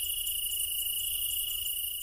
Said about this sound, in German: Denn schon der Sound hier, der ist Entspannung pur. Da ist einmal das Meer, das hier an die steilen Felsen anbrandet. Dann das Grillenzirpen, bisschen Vogelgezwitscher.